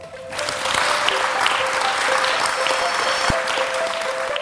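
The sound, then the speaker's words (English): Sustained applause from a session audience thanking a panel, a dense, steady patter of many hands clapping at moderate loudness throughout, with no speech over it. “Can I just ask you to thank our wonderful panel,”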